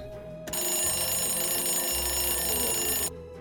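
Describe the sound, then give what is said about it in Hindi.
A loud, bright alarm clock bell rings continuously for about two and a half seconds, a dense metallic jangle that starts and stops abruptly, with no voices present. “अब वो लोग समझ गए थे कि वो ये घड़ी अब उनका पीछा नहीं छोड़ेगी धीरे धीरे उन्होंने घड़ी को स्वीकार कर लिया अब रोज तीन से साढ़े तीन बजे के बीच में अलार्म बजता है”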